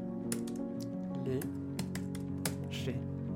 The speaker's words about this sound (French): Elle tapote ostensiblement sur son clavier blanc type AZERTY, tout droit sorti des années 80. Je vois l'éphémère odyssée de ses doigts parcourir les terres du clavier.